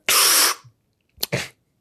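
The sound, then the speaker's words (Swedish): Sharp, forceful breaths pushed out through the nose in the Breath of Fire (Kapalbhati) breathing exercise: one long, loud hissing exhale, then a quick pair of short puffs and the start of another, with no talking. “Alltså man andas kraftigt ut genom näsan.”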